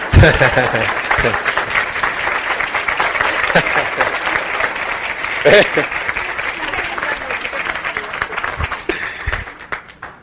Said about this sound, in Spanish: Que me escuche dos aplausos. Que me escuche dos aplausos. Yo le digo, como yo dije, yo soy como …, usted, mientras usted me siga aplaudiendo, yo sigo cantando.